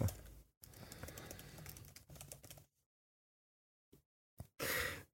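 A few seconds of rapid clattering on a computer keyboard, then silence broken by a couple of isolated keystrokes and a short breathy burst at the end. No one speaks.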